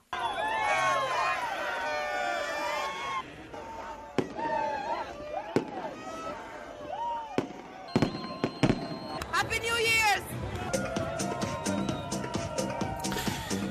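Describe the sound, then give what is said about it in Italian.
Fireworks crackle and whistle amid a lively crowd of young people celebrating the arrival of 2015 in Beirut, with several sharp, loud bangs going off at irregular intervals over a steady wash of voices and rising shrieks of launching rockets. “Festa sfrenata, fuochi d'artificio, musica e grande entusiasmo a Beirut dove i giovani hanno salutato l'arrivo del 2015 in modo spensierato”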